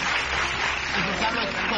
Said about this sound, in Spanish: Un aplauso para la veneno, señores y señores. Un fuerte aplauso para la veneno.